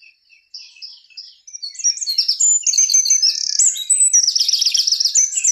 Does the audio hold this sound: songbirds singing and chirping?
yes